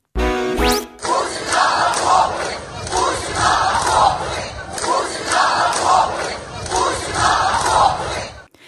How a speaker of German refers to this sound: Das sind nämlich genau die Leute, die jetzt auf die Straße gehen und rufen Putin in den Schützengraben oder in die Schützengräben, ich weiß es nicht.